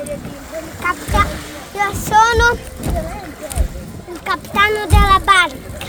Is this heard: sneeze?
no